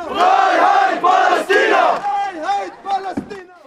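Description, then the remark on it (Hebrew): A large crowd chants loudly in unison at a street demonstration in Germany, one of dozens held against Israel in May during its operation against Gaza, shouting rhythmic phrases in bursts, then trailing off into fewer, scattered voices toward the end. “בחודש מאי האחרון כמובן, כש, כשישראל יצאה למבצע נגד עזה, אז היו כאן בגרמניה אה, עשרות הפגנות.”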